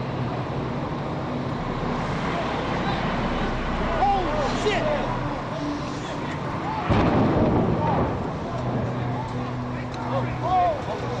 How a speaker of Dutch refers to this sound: Even later weer een explosie.